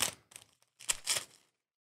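A beautifully wrapped little piece of paper is unfolded in a few short, crisp bursts of crinkling and rustling, with brief pauses between them and no voices.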